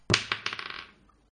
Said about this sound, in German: Du würfelst bitte einen Stealth-Wurf, aber du kriegst äh, Advantage drauf.